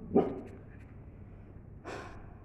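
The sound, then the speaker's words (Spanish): A dog named Aika gives one short bark near the start, followed a moment later by a breathy huff or snort. Both sounds are moderately quiet and nobody speaks. “Em, no sé, Aika no ladres, por favor.”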